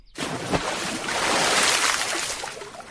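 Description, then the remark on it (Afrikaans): A big splash as a whale plunges into a large water tank, followed by a few seconds of loud rushing, churning water that stays steady before easing slightly. No voices. “dankie sê die walvis en plons in die groot watertank in.”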